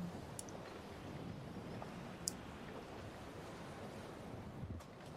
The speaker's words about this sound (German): irgendwann fängst du an, die Gischt zu spüren einfach die Wellen, die hier ankommen, sind teilweise riesenhaft.